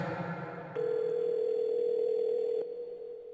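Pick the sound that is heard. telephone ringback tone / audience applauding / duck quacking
telephone ringback tone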